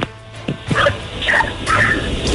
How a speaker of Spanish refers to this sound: Oh, allá atrás de usted hay un perro. ¿Me puede decir si por favor deja de ladrar?